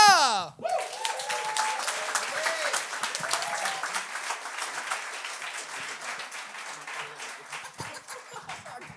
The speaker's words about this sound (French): Un tonnerre d'applaudissements